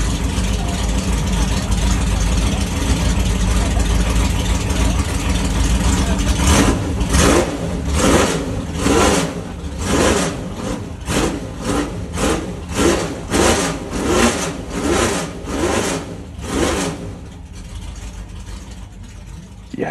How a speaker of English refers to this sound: he spotted that I was sort of kneeling down at the front of the pack, clearly filming, he sort of gives me the little wink and just sort of gives it this sort of fantastic blast on the throttle. And I'll probably edit that in now so you can hear it.